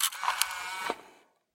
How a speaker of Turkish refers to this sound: Fotoğrafçıların kamera satın alırken yaptığı hatalar ve bunlardan nasıl kaçınılacağı ile ilgili yepyeni bölümümüze deklanşör sesiyle geçişimizi yapalım.